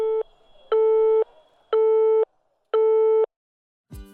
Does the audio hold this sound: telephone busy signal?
yes